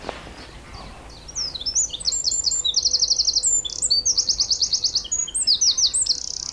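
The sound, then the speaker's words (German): A small bird, a wren, sings loudly from a branch about three meters up, some five or six meters away, pouring out rapid trills and bright whistled phrases in a continuous, varied song with no talking. “Der kleine Vogel hat eine Stimme, da könnte eine Drossel raus sein.”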